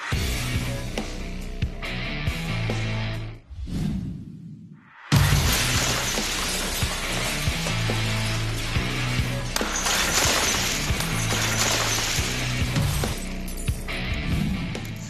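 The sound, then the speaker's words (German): Tempered safety glass, rapidly cooled after casting so it stores enormous tension, bursts at slight damage into countless tiny fragments with a loud, sustained crackling shatter, preceded by a brief muffled lull, then dense glittering debris continuing for several seconds. “das Glas zerspringt in tausend winzige Einzelteile”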